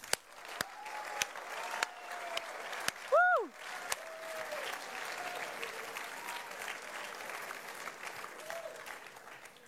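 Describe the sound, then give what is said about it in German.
Steady, dense applause from an audience fills the whole stretch, with a single loud whooping cheer rising and falling partway through and a few faint voices underneath. “Komm, wir geben ihr mal Applaus.”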